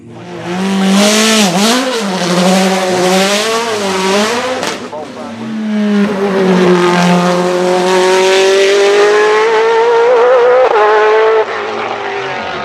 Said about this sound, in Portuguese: O carro em questão chama-se Mercedes-Benz CLK GTR. Por que, que ele teve dois motores? É uma coisa que muita gente não, não atenta, mas o, o CLK GTR ele não usou o motor V12 em Le Mans, nas 24 horas de Le Mans.